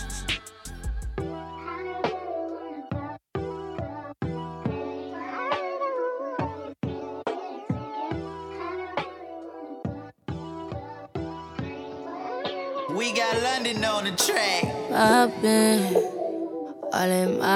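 A smooth, slow R&B song plays on Money Talks Radio at steady volume, with a melodic sung vocal gliding over warm keys and a soft bassline, building slightly toward the end.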